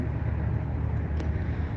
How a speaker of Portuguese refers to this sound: Só que tem uns carros passando aqui próximo mas tá tudo certo.